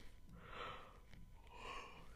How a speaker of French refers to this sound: C'est la deuxième fois que je baille. c'est la deuxième fois que je baille dans ce podcast. Et je sais que quand tu bailles, automatiquement tu fais bailler les autres.